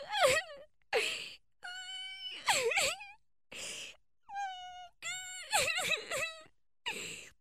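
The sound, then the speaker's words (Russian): A series of whimpering, wailing cries in short bursts, each with a wavering, tremulous pitch and breathy edges. They sound loud, with brief pauses between and no talking. “Такое впечатление, что кто-то плачет.”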